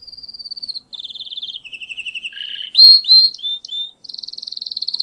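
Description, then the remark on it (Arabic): A yellow canary with a crest on its head, named Sunbul and kept in a cage, sings a bright, high-pitched song of rapid trills and rolling tours, shifting between fast repeated notes and sweeping chirps, clear and continuous with no talking. “هو كناري أصفر زخطور وعلى راسه غرة ها كمان بعتت لي إياه بغرد اسمعوا”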